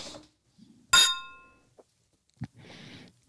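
Two beer glasses filled with peanut butter cream blonde ale clink together once in a bright toast, the ring fading over about half a second, followed by a soft thud and some shuffling noise.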